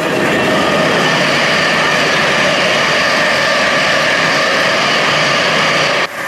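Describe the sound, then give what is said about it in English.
A fast train thunders past on well-worn rails, its loud, steady roar filling the air for several seconds before cutting off abruptly near the end. No voices are heard. “The roar of the passing train shocked Malcolm's memory back to the vivid heat of a moment that took place ten years before.”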